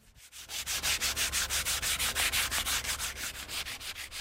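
Steady rhythmic scraping strokes on wood, roughly four per second, fairly loud, as solid wood from Gangwon Province is carved into cutting boards at a workshop in Yangyang, Gangwon Province, not far from the seaside, with no voices.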